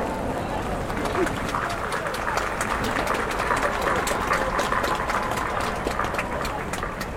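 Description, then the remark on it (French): A large outdoor crowd holding umbrellas claps steadily and continuously, a dense rattle of hands mixed with murmuring voices, sustained at an even level for several seconds. “Eh, non è facile eh, applaudire con l'ombrella in mano.”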